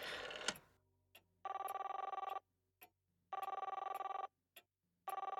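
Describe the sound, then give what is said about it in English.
An old-fashioned telephone bell rings in repeated bursts, each about a second long, with short single ticks between them, loud, following a brief clatter at the start, as a call is placed to the operator. “That's why they've been ringing me. Why, no one has answered me! I'll call the operator again.”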